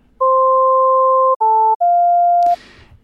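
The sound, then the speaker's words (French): A short example melody from a listening test on pitch expectations, made of three pure electronic tones played alone: a long first note, a brief second, and an unexpected third note, followed by a quick noisy burst at the end. “Et là, on peut peut-être écouter des exemples d'une mélodie à un auteur euh, où la troisième note est inattendue.”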